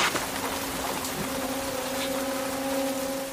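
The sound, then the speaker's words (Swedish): Steady rain in a film scene hisses evenly throughout, with a low constant mechanical hum running beneath it. No one speaks. “För han klarar inte av regn. Nej, precis. Det regnade på dem konstant.”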